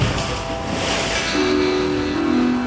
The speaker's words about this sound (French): je vous conseille hein, de venir ici à marée basse ou montante pour voir l'eau s'engouffrer et ressortir de la grotte. Le spectacle est magnifique. Les vagues également se, fracassent hein, sur la roche.